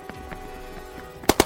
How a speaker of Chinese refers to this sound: 子弹从头上嗖嗖的飞过，女警们用手枪还击。